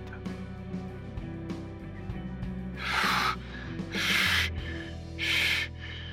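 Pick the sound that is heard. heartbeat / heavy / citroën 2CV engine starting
heavy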